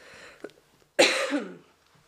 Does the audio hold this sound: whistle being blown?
no